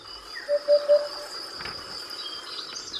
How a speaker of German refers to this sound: Upupa heißt lateinisch Wiedehopf. Und jetzt versteht man auch warum. Das ist der Balzruf dieses Vogels.